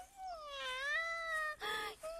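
A cat gives one long, drawn-out meow that wavers in pitch, followed quickly by a shorter, brighter cry and the start of a third, heard alone with no talking.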